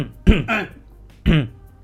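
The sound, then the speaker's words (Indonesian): A person coughs three times after choking, two harsh coughs in quick succession, then a third after a short pause, sounding strained as if clearing something caught in the throat. “batuk, batuk pandi.”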